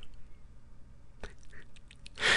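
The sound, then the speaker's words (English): Crunchy chewing of crackers, with a sharp crack about halfway through, then a run of small moist clicks and a burst of louder crunching at the end. No one speaks. “just the sounds of me chewing crackers.”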